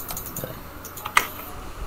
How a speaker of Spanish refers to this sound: Por cierto, no se nota para nada que estás jugando LOL. Eh, esa es una difamación muy fuerte, ok. Mi teclado suena así, juegue lo que juegue.